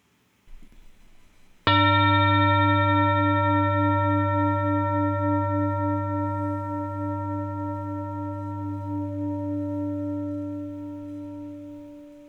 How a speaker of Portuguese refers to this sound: E prepare-se, pois em alguns instantes eu vou tocar o gongo para começar.